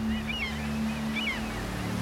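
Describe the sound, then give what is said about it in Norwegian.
A steady wash of open-sea water and surf out on the great sea with no land in sight, with a low droning hum underneath and a couple of brief, faint high calls drifting over the top. “Ut på det store havet.”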